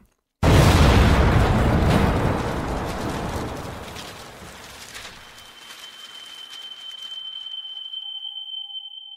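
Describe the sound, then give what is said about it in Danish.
A bomb hidden in a bag goes off with a sudden, massive blast just as the car following Franz Ferdinand's car reaches it, followed by a long rumbling roar and crackling debris that slowly fades, leaving a thin high-pitched ringing tone over quiet hiss. “Og så går der de længste to sekunder, du nogensinde har oplevet i hele dit liv, mens bilen med Frans Ferdinand og Sofie passerer dig forbi, og den bagvedliggende bil lige præcis når op til tasken inden bomben eksploderer.”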